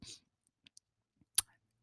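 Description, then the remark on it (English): A short, soft slurp of someone sipping chai tea from a cup, followed by faint mouth clicks and one sharper clink, quiet with no talking. “Just took a little sip, okay?”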